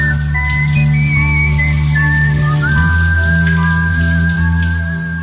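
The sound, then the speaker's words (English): A shower runs steadily throughout, a continuous hiss of spraying water, with a thin whistled melody and a low droning hum underneath. “Moments of clarity from the shower.”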